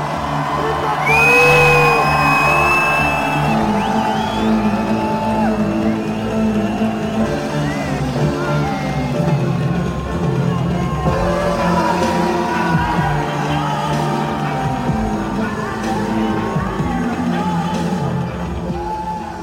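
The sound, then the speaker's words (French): A loud, dense crowd cheers continuously outdoors at a techno parade free party, recorded in October 2019, with high whoops and shouts rising above a steady roar of many voices and a low rumbling background throughout. “pendant la Technoparade avec un cortège en l'honneur de Steve”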